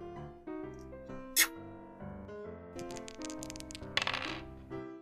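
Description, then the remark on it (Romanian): A small clatter of a die rolled in a game of Nu te supăra: a single sharp knock, then a quick run of rattling clicks and bounces, over a steady tonal background. “Tu da acolo cu zarul mai întâi.”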